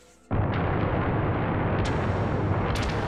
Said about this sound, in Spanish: Y el truenazo. A ver si le... Bueno, no, la otra vez si le puse buena... Reverberación. Reverberación.